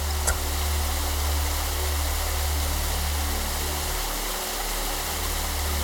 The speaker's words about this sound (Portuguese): você vai seguindo a luz, você percebe o barulho de uma cachoeira se aproximando.